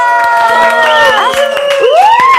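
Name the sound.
audience applause and cheering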